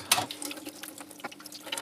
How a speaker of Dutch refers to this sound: En haal ik de zetgroep eruit. Ook dit voel ik af onder de kraan.